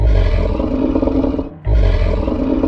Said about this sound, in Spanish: En eso, ella escuchó que hacía un sonido como un gruñido